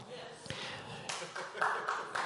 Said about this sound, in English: Didn't expect to get an applause there, but I'll take it.